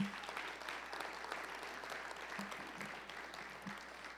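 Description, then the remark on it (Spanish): An audience claps for the Lord, steadily, a dense continuous patter of many hands with no clear rhythm, holding at an even loudness throughout without noticeable voices. “Si lo cree, dele un aplauso al Señor, hermano.”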